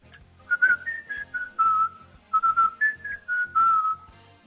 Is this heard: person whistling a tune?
yes